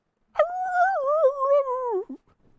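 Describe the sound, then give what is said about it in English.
A werewolf screams in one long, loud howl that wavers and slowly drops in pitch, ending with a short, sharp yelp. No one speaks over it. “Not not like dog screaming, but like werewolf screaming.”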